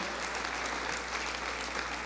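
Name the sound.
applause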